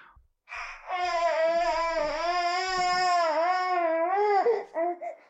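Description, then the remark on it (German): A hungry baby, just woken up, cries in one long, strained wail lasting several seconds, then breaks into a few short, fussy whimpers. No one else speaks. “wacht auf und direkt Hunger.”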